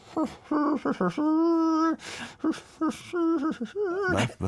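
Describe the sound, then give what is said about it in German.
A single voice hums a melody from Antonio Vivaldi's The Four Seasons, moving through short and sustained notes with a couple of audible breaths between phrases, a little uneven and wavering. “Ja, das sind doch die berühmten vier Jahreszeiten. Ach so, ja, kaum wiederzuerkennen.”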